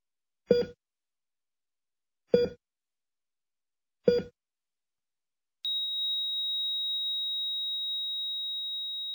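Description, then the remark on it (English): Three short, evenly spaced electronic beeps from a heart monitor, then a single unbroken high-pitched tone that holds steady to the end, the monitor going flat. Clear, with no voices. “would have been hooked up to a heart monitor on the ninth green of the Cochrane Golf Course in September of 2021, that would have been the noise you heard.”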